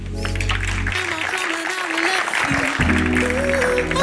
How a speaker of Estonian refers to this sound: teeme talle uuesti suure aplausi